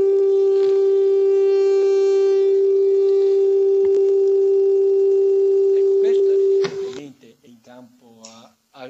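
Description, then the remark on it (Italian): A steady, unwavering whistle-like acoustic tone at a single frequency, played as an example of what a radio carrier is like, holds at one pitch for about seven seconds, loud and constant, then cuts off as a man begins speaking. “Se io vi vi, vi volessi fare un esempio non radio ma acustico che, che è simile, una, una portante radio, ecco, è una specie di tono, un fischio, ve la, ve la ritorno.”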